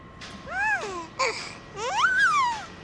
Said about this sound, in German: Und was hat das mit diesem Baby auf sich, das du da mitgebracht hast?